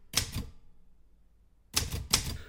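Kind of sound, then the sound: machine, typewriter keys clattering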